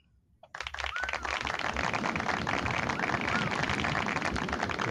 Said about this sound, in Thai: นี่มีเอฟเฟกด้วยนะผมพกเสียงปรบมือตัวเองมาครับ